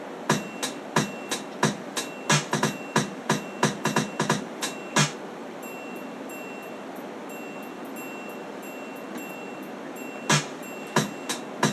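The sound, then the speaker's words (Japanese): A quick, steady run of crisp percussive hits in a hip-hop-style drum pattern, with a bright programmed triangle percussion sound ringing high above it in time with the drums, then a pause before the beat briefly returns. “そうするとまあドラムはドラムでこのちょっとヒップホップテイストのドラムなんですけどそこにちょっとこう高音の音がねなんかシャンシャンシャンってこうチンチがシンシャンシャンしてなんかこう入ってくることによって印象がこうなんかちょっとね華やかに聞こえるんですよね”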